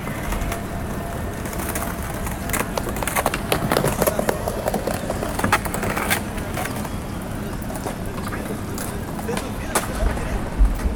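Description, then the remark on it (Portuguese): Skateboarders at Praça Mauá: skateboards clack and snap at irregular moments over a steady low rumble of rolling wheels, with indistinct voices murmuring underneath throughout. “Na Praça Mauá, skatistas preenchem o espaço com suas batidas, enquanto concorrem com os vendedores na porta dos museus fechados.”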